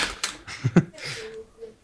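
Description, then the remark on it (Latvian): A rapid run of sharp, clattering key clicks, like fast typing on a keyboard, comes in uneven bursts at moderate volume, with a faint murmur of voice underneath toward the end. “Kas tur notiek fonā? Kāds kaut ko apēda un iz, iz, izrīja klaviatūru, vai arī vienkārši fonā viens fapo.”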